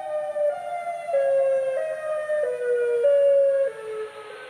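A tornado warning siren in Chicago, sounding during a National Weather Service tornado warning for central Cook County, Illinois, blares loud and continuous, its tone stepping up and down between slightly different pitches every half second or so, with no voices over it.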